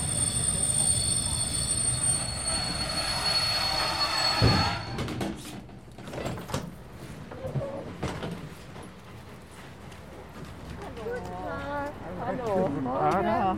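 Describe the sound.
A train rolls into Chemnitz Hauptbahnhof, Germany, where it terminates, with steady rumbling and high squealing wheels for several seconds, then clunks and door sounds follow as it stops, with voices talking in the background.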